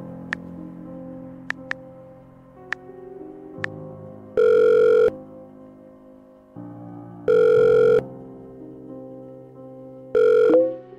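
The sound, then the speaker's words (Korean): A call placed from a mobile phone gives a ringback tone three times, each steady buzzing tone lasting under a second with long pauses between, over a low background hum and a few faint clicks. “고심 끝에 난 휴대폰을 꺼내어 전화를 걸었다.”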